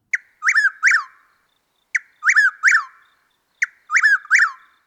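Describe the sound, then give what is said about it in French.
An eastern whip-poor-will (nightjar) sings a three-part phrase three times at an even pace: a short sharp note followed by two rising-then-falling whistles. The song is clear, with no other sounds. “Et voici comme à l'habitude la voix de l'oiseau à l'honneur aujourd'hui.”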